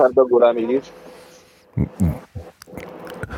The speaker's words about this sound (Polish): Słyszymy autokar, widzimy, e, wyglądamy przez okno, patrzymy na trasę, zaśnieżona albo niezaśnieżona,